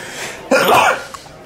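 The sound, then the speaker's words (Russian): One sudden, forceful sneeze bursts out, a short explosive blast lasting under half a second, followed by quiet with no talking. “А, будь здоров, будь спасибо.”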